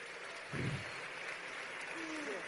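A crowd applauds at a company convention, clapping for the company's diamonds, in a steady, dense wash of clapping that continues throughout, with a brief low vocal burst early on and a faint tonal whistle near the end.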